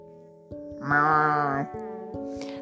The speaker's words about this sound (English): Hear the cattle lowing, and that means they were